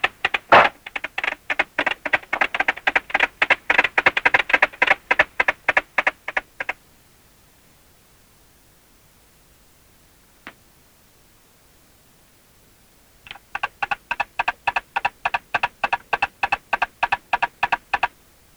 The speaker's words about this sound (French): j'ai trouvé un monde de percussions inaudibles, les signaux sonores entre les vers dans le bois, des tambours de bois de différentes tonalités, des signaux secs de différentes formes arrivés de loin et de près vers moi.